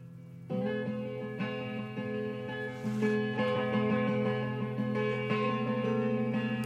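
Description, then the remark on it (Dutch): A song's guitar intro rings out clearly, with sustained, shimmering chords strummed in a steady rhythm and bright harmonic overtones, loud, with no voices. “Is het soms zijn gitaar?”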